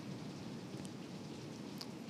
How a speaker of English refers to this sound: Yeah, sorry if y'all can hear that rain. we are standing right next to the window.